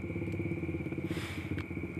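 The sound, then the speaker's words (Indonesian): A steady engine rumble, like a motorcycle idling or crawling along a street, with a constant whine above it and a few faint clattering knocks. No voices are heard. “sorry ada iklan karena gue di jalan boy”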